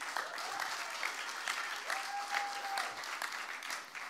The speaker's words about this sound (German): Einen riesen Applaus für sie.